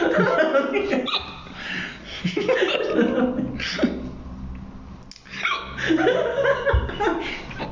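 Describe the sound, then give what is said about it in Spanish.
Loud laughter breaks up with sharp, abrupt hiccups that come every second or two, each a short gasping catch of breath mixed into the chuckling. “ya me dio hipo.”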